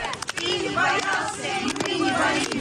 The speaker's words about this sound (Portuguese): Do lado fora da igreja, a multidão continua reunida e vai entoando vários cânticos, entre eles este que diz: Não tiveste medo, nós também não temos medo